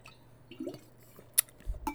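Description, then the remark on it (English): Someone takes wet gulps of water, a few quick swallows with soft liquid clicks and a sharper smack near the end, no talking. “Sorry, I'm drinking water.”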